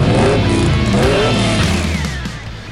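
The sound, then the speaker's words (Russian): A car engine revs hard and accelerates, a loud, sustained roar with rising pitch that gradually eases off toward the end. No voices are heard. “Дави на газ.”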